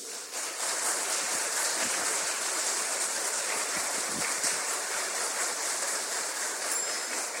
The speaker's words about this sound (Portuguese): Aplausos para Jesus, irmão.